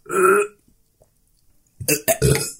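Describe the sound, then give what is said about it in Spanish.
A loud burp lasting about half a second, followed by a short silence and then a burst of brief, indistinct vocal noises. “Oye, amigo, si te molesto aquí no puedes eructar.”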